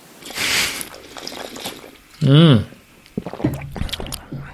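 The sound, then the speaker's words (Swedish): A brief slurping sip of water taken to cleanse the palate, followed by an appreciative hum and then a few softly spoken words. “Mm, då ställer vi smaklökarna. Ja. Med vatten.”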